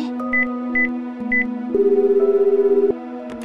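A mobile phone dials out to call senior colleague Kobayashi with a few short, evenly spaced beeps over a steady electronic tone, then a pulsing ringback tone sounds until the end. Nobody speaks.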